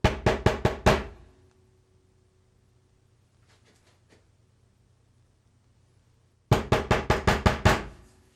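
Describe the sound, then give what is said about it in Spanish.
A quick run of five sharp knocks on the door of a parked car with its curtains closed, then several seconds of quiet, then another loud burst of about six rapid knocks. Clear, with no voices. “Y golpea al argentino así, en la puerta del automóvil.”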